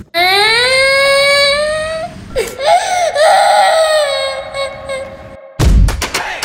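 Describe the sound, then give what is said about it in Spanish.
A child wails loudly during a tantrum in long, rising cries with strong harmonics, breaking into shorter sobbing bursts, then a sharp burst of noise near the end. No talking. “Hoy estamos hablando de los berrinches.”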